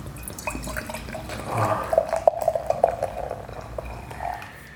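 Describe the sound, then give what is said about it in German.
Wheat beer glugs and splashes as it's poured into a glass at the Fette Kuh Studios in Cologne, with a bubbly, gurgling rush in the middle and a fizzing tail, no one speaking. “Das fette Weißbier.”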